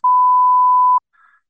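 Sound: censorship bleep tone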